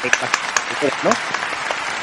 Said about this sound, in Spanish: Un, aplauso, fuerte aplauso para, para esta ¿no?